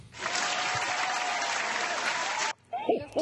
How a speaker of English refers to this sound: Uh, thank you. Applause for the Haitian Dwarf.